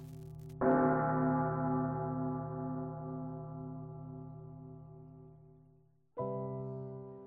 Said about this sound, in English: To the rolling of the bells, of the bells, bells, bells, to the tolling of the bells, of the bells, bells, bells, bells, bells, bells, bells. To the moaning and the groaning of the bells.